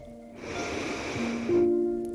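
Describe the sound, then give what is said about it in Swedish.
A single long, deep breath drawn in through the nose, airy, lasting over a second, with soft sustained musical tones humming underneath. “Andas in.”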